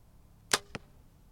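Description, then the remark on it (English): An arrow shot by hunter Ronald Shalmadine strikes its target with a sharp thwack, followed a beat later by a second, softer impact; the rest is quiet with no voices. “That's Ronald Shalmadine's arrow hitting its target.”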